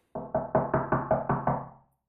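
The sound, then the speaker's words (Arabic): A quick series of eight sharp knocks on the wooden door of grandmother's house, made by the wolf in a story, evenly spaced, each with a short hollow decay, stopping abruptly with no voices. “ركضت حتى تلحق الديب لما وصلت على بيت التيتا لقيته لابس الجاكيت يلي ضيعتها وعم يدق على الباب”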